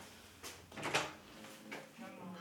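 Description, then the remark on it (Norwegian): A door bangs shut with a sharp thud, blown closed by a draught just after being opened, preceded and followed by softer knocks and rattles, with faint voices in the background. “Smelte jeg døra? Jeg åpna ja, meg og smalt den igjen.”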